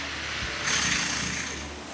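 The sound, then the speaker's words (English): A power tool, like a jackhammer or chainsaw, drones steadily outdoors on the grounds of a Quaker meeting house in Berkhamsted, England, swelling a little louder partway through before settling back to a constant mechanical rumble. No one speaks. “Was it a chainsaw, do you think? Sounds like a jackhammer or something.”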